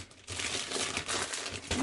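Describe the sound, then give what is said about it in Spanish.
Crinkly plastic wrapper of a coffee candy being unwrapped, a continuous dense crackling that starts after a brief pause and keeps rustling steadily at a moderate level, with no one talking. “caramelo de café.”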